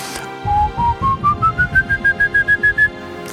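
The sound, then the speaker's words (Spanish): A clear whistle, imitating how the legendary Silbón whistles, climbs note by note up a scale from do to si, then repeats the top pitch in several quick, evenly spaced whistles. The sound is fairly loud and heard alone without talk. “De hecho, encontré varias, varias versiones, pero encontré una muy interesante que dicen que silba de do hasta si. Y luego se queda ahí y chifla varias veces.”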